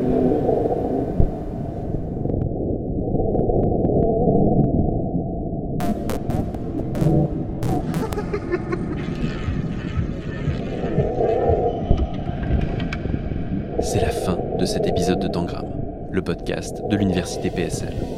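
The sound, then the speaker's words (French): Reworked sonification of seismic waves from the RER B underground train at Luxembourg station, Paris: a continuous deep, moaning rumble with whale-like tones, overlaid by intermittent crackling, hissy bursts that flare and fade over about eighteen seconds. “Vous écoutez la sonorisation, retravaillée par mes soins, des ondes sismiques du RERB, station Luxembourg, à Paris.”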